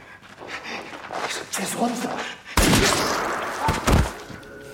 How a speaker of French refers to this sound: Et un nouveau coup de feu dans cette émission sur Squid Game. Nous sommes dans l'épisode 5 cette fois